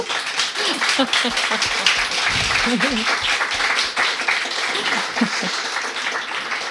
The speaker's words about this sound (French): Alors, il reste à, applaudir, voilà qui est fait.